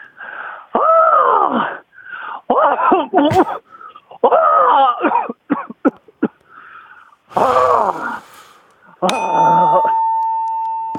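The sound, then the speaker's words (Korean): A caller on a radio phone-in show imitates an annoying crow with a series of harsh, strained caws in uneven bursts, some drawn out and some clipped short, followed by a ringing electronic tone near the end. “들린 까마귀 다시 한번 들어볼게요.”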